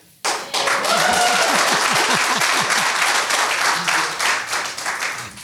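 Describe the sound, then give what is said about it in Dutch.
A live audience in a hall breaks into sustained applause, a dense wash of many hands clapping that starts abruptly and holds steady for several seconds, with faint cheers and whoops mixed in. “Ik hoop dat jullie ook even laten horen dat jullie er zijn.”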